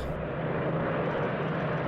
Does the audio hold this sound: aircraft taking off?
yes